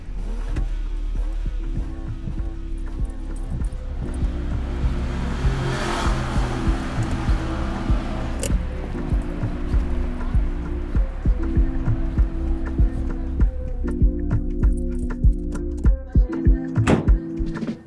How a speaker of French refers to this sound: c'est un paysage, une ambiance sonore alors là, urbaine